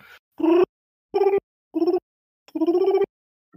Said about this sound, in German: da hört ihr plötzlich auf Schwester Makulaturas Smartphone einen Anruf